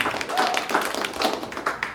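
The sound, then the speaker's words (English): An audience claps steadily for David Tveite, many overlapping handclaps forming a dense, crackling wash that holds at an even, moderate loudness throughout, with no voices over it. “All right, Ian Karmel, clap your hands. Keep it going for David Tveite.”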